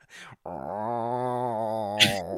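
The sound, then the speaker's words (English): A cat growls angrily, a low, wavering, drawn-out rumble lasting over a second, cut off by a short sharp hiss at the end. “I love angry cat sounds in films.”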